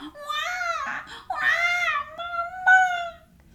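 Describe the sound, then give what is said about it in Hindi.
A voice imitates a giant baby monster crying in a story: three drawn-out, wavering wails in quick succession, loud, with short breaths between them and no other sounds. “इतने में विशाल शिशु राक्षस रोने लगा”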